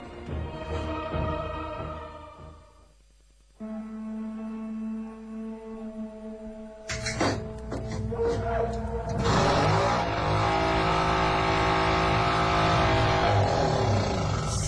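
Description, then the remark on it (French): A car engine struggles to start, with a low mechanical drone that cuts out briefly, then returns louder in rough, sputtering bursts and settles into a steady rumble. “J'espère qu'elle va démarrer sans problème.”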